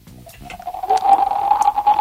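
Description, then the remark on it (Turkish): A person imitates the hum of wind in a forest with their mouth: a steady, airy whistling tone that swells in gradually and holds fairly loud for about two seconds. “Ormandaki uğultuyu yap bakayım bir.”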